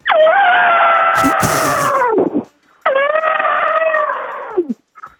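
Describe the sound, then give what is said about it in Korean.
A voice imitates an elephant as part of a voice-impression quiz, with two long, loud, brassy trumpeting calls, each a few seconds long and sliding down at the end, separated by a short pause. “진짜 여기서 코끼리에서 너무 웃었다고.”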